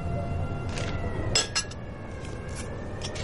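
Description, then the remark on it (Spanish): Coffee pouring from a pot into a cup in a kitchen over a steady hiss, with a few sharp ceramic clinks scattered throughout. Fairly quiet, with no talking. “coge una cafetera y se sirve una taza de café sin dejar de ojear el diario.”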